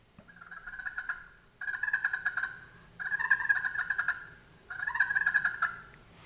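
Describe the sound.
Four rolling, purring bursts from a turkey friction call, the striker held almost perpendicular and slowly dragged across the surface with even pressure, each a steady rattly trill lasting about a second, separated by brief pauses, moderately loud with no talking.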